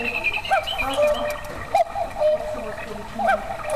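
In Germany's largest clock shop, a cuckoo clock calls its two-note cuckoo several times in a row, overlapping with other clock calls amid a busy backdrop of ticking and chiming clocks.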